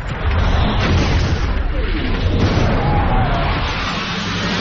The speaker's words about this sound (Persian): 21 شهریور 1359 هواپیماهای عراق از طریق نقاط رادار گریز وارد آسمان تهران شدند و اولین بمب منفجر شد.